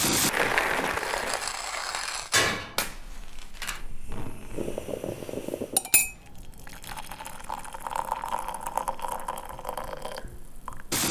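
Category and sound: household object, making coffee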